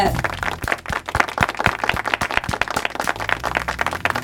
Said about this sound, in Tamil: so அவங்கள நம்ம ஊக்கப்படுத்துற விதத்துல இன்னைக்கு நாம அவங்களுக்கு பாராட்ட கைத்தட்டல் மூலமா தெரிவிச்சிடலாம் கைத்தட்டல் கொடுத்துடலாமா நீங்களும் உங்களோட கைத்தட்டலை கொடுங்க